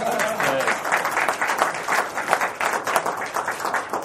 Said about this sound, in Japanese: 次いきますね拍手お願いします